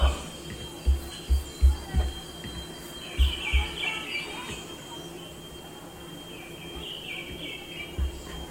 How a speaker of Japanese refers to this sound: 鳥うるせえかな。